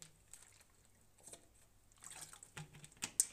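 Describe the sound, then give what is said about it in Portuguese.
Someone drinks water: quiet, wet sipping and swallowing sounds that grow a little louder toward the end, with a few soft gulps and no talking. “Um, beber água outra vez.”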